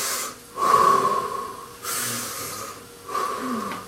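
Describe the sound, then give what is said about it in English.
A person breathes in and out loudly and deliberately, three long, airy, slightly whistling breaths separated by brief pauses, with no talking. “It's like, you know, when you're breathing, like,”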